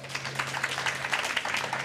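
Audience applause fills the whole stretch: a dense, crackling wash of many hands clapping at fairly even loudness, with a faint steady low hum underneath and no voices.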